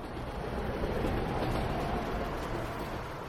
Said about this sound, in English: Siri's train arrived before too long, and she got on the closest car.